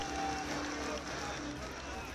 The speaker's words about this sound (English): That was the sound of protesters mainly made up of Muslims gathered at the Indian capital New Delhi earlier this year to protest against a new citizenship law viewed by many as anti Muslim and against the country's spirit of secularism.